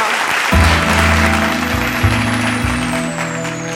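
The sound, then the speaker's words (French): An audience applauds to acclaim the Lord after a prayer, a dense, steady wash of clapping, while deep sustained organ-like chords shift underneath. “Acclamons très bien le Seigneur, notre Dieu.”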